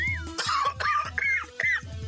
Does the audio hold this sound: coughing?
yes